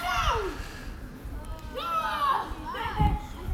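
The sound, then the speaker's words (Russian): Several Israeli children shout and squeal in high, excited voices, overlapping bursts of playful yelling against a busy outdoor background, fairly loud throughout. “но да, сейчас мы услышим нойз прекрасных израильских детишек.”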